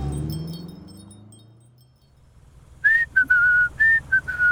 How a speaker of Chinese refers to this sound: 卷毛狐高兴的直吹口哨，眼睛都笑成了一条缝。